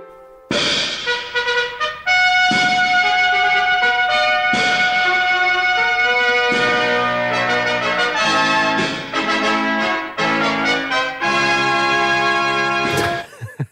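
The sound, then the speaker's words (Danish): A loud, bright trumpet fanfare from a film intro, played by three women on trumpets, with bold sustained brass notes broken by short punchy bursts and pauses, building to a final held chord. “De der tre kvinder, øh, som spiller øh, trompeter”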